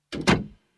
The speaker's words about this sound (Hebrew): אבל הוא לא ראה אף אחד. סגר אבא את הדלת